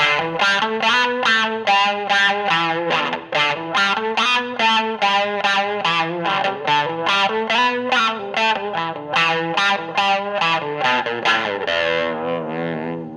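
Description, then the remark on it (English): A Stratocaster through a fuzz pedal, volume knob rolled back slightly, plays a quick repeated retrograde motive of bright, gritty picked notes, steady, ending on a sustained chord; no one speaks. “I'm going to play that same retrograde motive, but I'm going to roll back the volume knob on the Stratocaster just a hair.”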